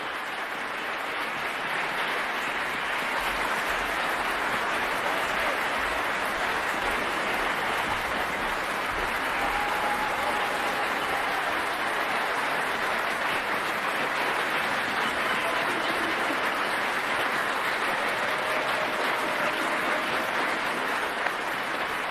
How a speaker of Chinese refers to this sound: 而2021年的维也纳新年音乐会有着非常特别的含义。尽管没有现场观众的参与，但是通过线上云端的技术，在现场的艺术家们仍然可以听到、感受到来自世界各地乐迷们的掌声。